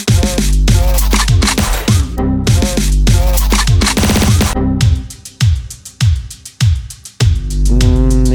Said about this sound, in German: Und das hat doch einen negativen Touch, weil dieser Sound ist doch ein Negativ-Sound bei Windows, oder nicht? Ich, ich höre nochmal.